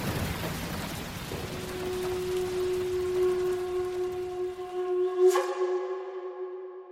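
A cyclone storm with steady rain hissing throughout, joined by a droning, howling wind tone that holds and swells, and a sharp burst near the end before it cuts to silence. No talking.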